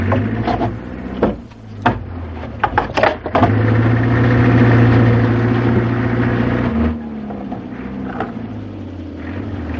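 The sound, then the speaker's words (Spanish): The engines of two approaching motor vehicles rumble steadily, swelling louder as they draw near, with a few sharp knocks and clatters early on before the droning eases off near the end. “Coloca como puede los maderos frente a la puerta y huye en su bicicleta al escuchar los motores.”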